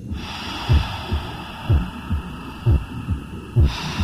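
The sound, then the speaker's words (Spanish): Muffled intrauterine body sounds: a steady low whooshing of blood with soft, rhythmic heartbeat thumps pulsing about twice per second, enveloping, with no voices. “La percepción auditiva intrauterina nos permite escuchar las sonoridades de nuestro propio cuerpo, el susurro de nuestra sangre, de nuestra respiración y los ruidos de nuestras entrañas.”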